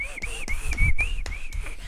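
A single sustained whistled tone runs through the whole two seconds, fairly loud, wavering gently in pitch, with a low rumble and a few sharp taps underneath.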